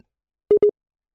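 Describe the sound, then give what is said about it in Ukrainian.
Two quick electronic beeps of an incoming call cut into a Viber phone line, evenly paced at the same mid pitch, with silence before and after and no voices. “То йде дзвінок, і він вас перериває.”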